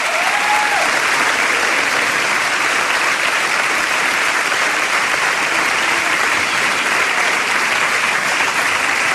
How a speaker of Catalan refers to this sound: I aquest aplaudiment per tu, Manoli. Gràcies.